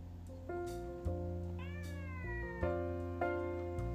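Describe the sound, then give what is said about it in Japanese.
A pet cat named Aimyon meows insistently, wanting to play, a series of drawn-out, rising and falling cries running almost continuously for several seconds, with no talking. “うんあの隣にね目の前にあいみょんが、えー、ちょっと猫のねあいみょんがいましてちょっと遊んで遊んでとすごいアプローチされてるんですけどもちょっと逃れながら、えー、ラジオを配信しております。”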